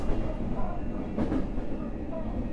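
A JR Kyushu 821 series electric train rumbles steadily along the rails from Futsukaichi to Hakata, Japan, a dense low-frequency roar with a brief swell of brighter mechanical noise midway, heard from inside the carriage without any voices.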